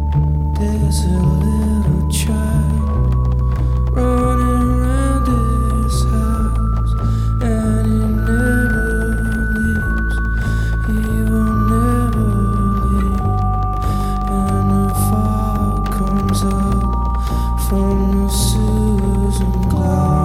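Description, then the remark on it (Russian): A rock band's B-side song plays throughout, loud and continuous, with long sustained gliding tones over a heavy, droning low end and a slow, atmospheric feel; no singing stands out. “Там есть песня под названием «Фог».”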